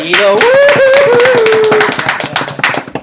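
An audience breaks into loud, steady applause, a dense patter of many hands clapping, with a high whooping cheer rising over it in the first couple of seconds before the clapping thins out.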